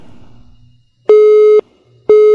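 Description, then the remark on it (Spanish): A telephone busy tone follows a dropped call: steady, loud electronic beeps about half a second long, repeating at an even pace after a brief murmur of low background noise. “Se le cayó la llamada. ¿Qué será lo que pasa con ese teléfono?”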